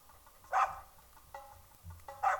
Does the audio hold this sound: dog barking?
yes